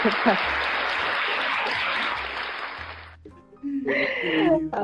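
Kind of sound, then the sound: crowd, hand clapping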